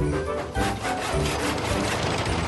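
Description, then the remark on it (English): Steady, rhythmic sawing through wood, with fast rasping strokes that repeat without a break, as a woodsman cuts down Christmas trees in Farmer Finney's snow-covered woods on the Island of Sodor. The scraping is loud and fills the whole clip, with no voices. “They were cutting down trees and loading them onto Terence's trailer.”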